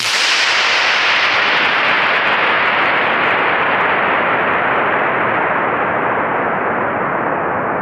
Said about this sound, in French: Effectivement, nous avons la même référence, c'est bien Tom Scott testant le plus long écho du monde.